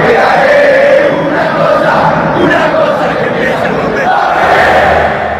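A huge crowd of Banfield fans at the Lencho stadium roars and cheers after Juan Francisco Bizanz's equalizing goal makes it Banfield 1, San Lorenzo 1. The loud, sustained wall of voices holds steady for several seconds before easing slightly at the end.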